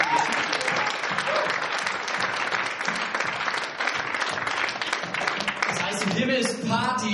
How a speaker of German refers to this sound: Lass uns der Person einen fetten Applaus geben